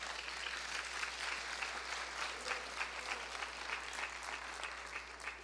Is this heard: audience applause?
yes